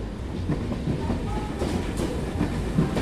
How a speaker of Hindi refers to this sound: Delhi railway station पे train आके रुकती है